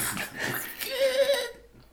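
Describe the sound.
A voice imitates an airplane crash: a breathy, rushing hiss gives way to a thin, sustained whining tone that wavers briefly and then cuts off, leaving quiet.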